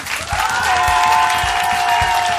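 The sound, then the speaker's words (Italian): A studio audience at the Radio 2 Social Club show breaks into loud, steady applause, in an applause poll for who came for a singer, dense clapping held at full strength for a couple of seconds, with a sustained high cheer riding over the noise. “È il mio pubblico, sentite, facciamo un toto applauso.”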